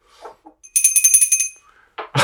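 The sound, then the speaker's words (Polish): A small bell rings rapidly, about eight quick bright strikes in a steady trill lasting under a second, followed by a couple of short rustling noises. “Nie, nie, to niekoniecznie musi być wstęp, ale na pewno musi być dzwonek.”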